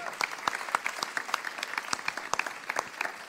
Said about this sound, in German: Ja, Applaus. Schön.